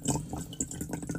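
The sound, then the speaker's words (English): A brief splashing trickle as a small shot's worth of drinking water is poured into a bong, fairly quiet, with uneven gurgling bursts over about a second and no voices. “That was me um, pouring a little bit more, like a tiny shot worth, shot worth of uh, drinking water into my bong”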